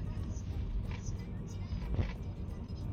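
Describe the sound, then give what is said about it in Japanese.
A car rumbles by outside, a steady low engine drone filling the moment, with faint muffled voice-like sounds over it; the same car also passed the day before. “あ、また…の車だ。ねえ、昨日もあったね。”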